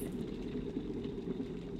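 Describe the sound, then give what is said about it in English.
A steady, dense rumble of water boiling in an electric kettle at a home in Colton, just outside Leeds, with continuous bubbling and hiss concentrated in the low-mid range, moderately loud with no voices. “This is my smart energy meter and it's showing that I've got really high usage and that's because I'm using my kettle and my washing machine's on at the same time.”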